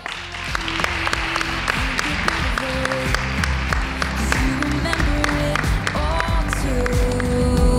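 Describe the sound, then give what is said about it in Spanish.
A crowd breaks into sustained applause for a woman, dense clapping with scattered voices and murmurs mixed in, steady and fairly loud for several seconds. “Pues un aplauso para ella.”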